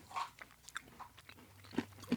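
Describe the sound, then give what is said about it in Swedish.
Crunching of large, fat, whole roasted peanuts being chewed, a series of sharp irregular crunches and bites over a couple of seconds with no talking. “De det här är stora, feta jordnötter.”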